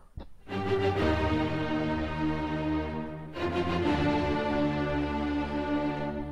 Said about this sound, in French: ce que vous venez d'entendre, c'est la cinquième symphonie de Beethoven